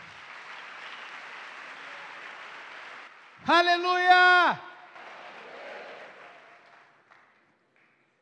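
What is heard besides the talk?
audience applause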